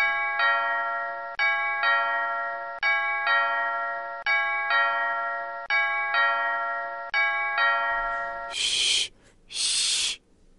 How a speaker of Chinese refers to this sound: 六点钟，当，老狼家的大钟敲响了。